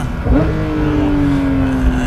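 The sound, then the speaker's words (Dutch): A Porsche 911 GT3 engine with a seven-speed PDK gearbox gives an automatic throttle blip on a downshift: the revs jump sharply, then settle into a loud, steady drone that slowly eases down. “Zo terugzakelend geeft hij lekker zelf tussengas.”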